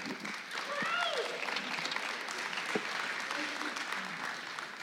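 Steady applause from an audience fills the whole stretch, a dense, even patter of many hands clapping at once, with a few brief cheers or whoops rising over it near the start.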